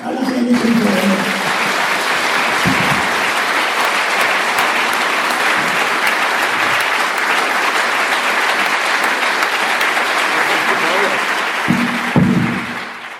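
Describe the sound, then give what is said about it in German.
Sustained applause from an audience at the end of a moderated talk, steady and loud for over ten seconds, with a few voices briefly audible at the start and near the end. “Und ähm, das war's, der Applaus ist dir.”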